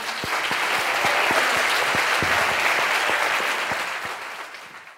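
An audience claps steadily for about five seconds, a dense, loud wash of hand claps that holds strong before tapering slightly at the end, with no voices over it.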